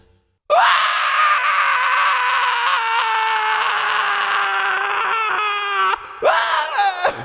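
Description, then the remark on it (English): A person lets out a long, loud, sustained scream lasting several seconds, breaks off briefly, then screams again in a shorter, wavering burst. Intense, with no talking. “I did not give you permission to scream.”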